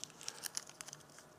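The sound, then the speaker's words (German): Crinkling and crackling of a crumpled, stamped-on paper banknote being handled, a series of sharp, irregular rustles and crackles with no voices. “Schau mal, diese Geschichte hier, die ich zerknüllt habe, zerstampft.”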